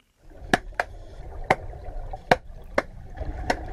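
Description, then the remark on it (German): A wild grey seal claps its flippers underwater, producing six sharp, percussive cracks at irregular intervals over a low, murky underwater background rumble. “das ist ein wilder grauer Seehund, der so klatscht.”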